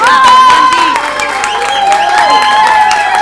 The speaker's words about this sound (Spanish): Podemos cerrar una sección con unos super aplausos